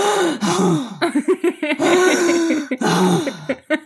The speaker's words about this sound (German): Äh, wie kann man denn so ein unerträglicher Hund sein? Alter. Jetzt atmet der auch noch laut.